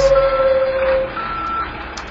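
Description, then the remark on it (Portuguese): A truck's reversing alarm sounds steady and fairly loud over a low engine rumble and outdoor noise, with a higher beep tone coming and going partway through; trucks are blocking a home entrance on a street closed at night for transporting heavy material. “Bloquearam nossa entrada com caminhões.”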